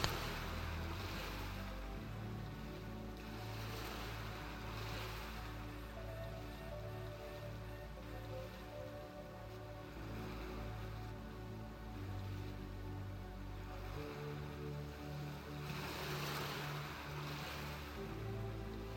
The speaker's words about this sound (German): Du kannst das gleichmäßige Auf und Ab der Wellen betrachten und der Rhythmus des Meeres bringt dich zur Ruhe. Auf und ab, auf und ab bewegen sich die Wellen